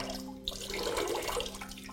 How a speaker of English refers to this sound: if we just pour some water in it, then you can see that we're not going to be able to get the air out